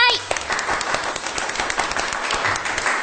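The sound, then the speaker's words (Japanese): A crowd applauds steadily to welcome guests onto a show, dense overlapping claps forming a continuous patter that stays fairly even in loudness for the whole stretch, with a brief tonal blip at the very start. “拍手でお迎えくださ”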